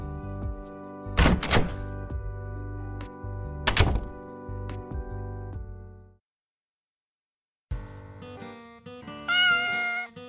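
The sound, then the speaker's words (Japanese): A cat named Mochi meows with drawn-out, tonal cries, broken up by two dull thumps and a brief silence before a final rising meow near the end. “僕はね、生まれ変わったら猫になりたい。”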